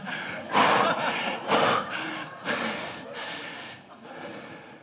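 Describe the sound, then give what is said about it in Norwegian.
Deep, audible breaths, several slow inhales and exhales in a loose rhythm, each a broad airy rush that swells and fades, with no talking. “Skal vi bare reflektere litt over det mens noen puster?”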